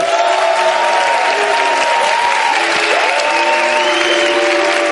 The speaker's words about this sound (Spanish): Oye, por cierto, el Real Madrid se clasificó para cuartos de final de la Champions. Un aplauso.